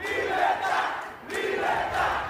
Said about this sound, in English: Chanting for freedom.